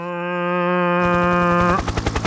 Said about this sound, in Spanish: Es un helicóptero.